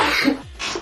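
A single sneeze: a sharp, breathy burst that trails into a short hiss after a brief pause. No one speaks.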